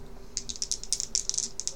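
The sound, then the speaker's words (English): Dice rattle and clatter in a quick, uneven burst of sharp little clicks, fairly quiet, with a faint steady hum underneath and no one speaking. “Uh, okay, give me a quick dexterity roll, see how well you can do with this.”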